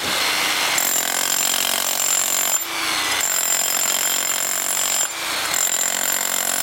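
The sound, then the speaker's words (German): A relatively small Wacker powered compactor pounds away during construction work at the remains of the mountain station on the Grubas, a former mine, in a loud, steady mechanical rattle with dense high-pitched hammering, briefly cutting out twice before starting up again; no one speaks. “Und jetzt haben wir einen relativ kleinen Wacker hier, weil wir keinen grossen Helikopter hatten.”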